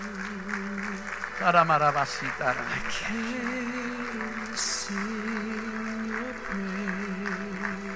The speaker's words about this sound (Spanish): Póngase de pie, por favor. Aleluya. Siga aplaudiendo un poquito más.